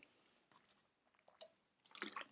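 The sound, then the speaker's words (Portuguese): Quiet sounds of someone drinking water to swallow a pill: a couple of isolated wet clicks, then a short burst of sipping and gulping at the end, with no talking. “Agora tenho que tomar a pílula que está a tocar o despertador.”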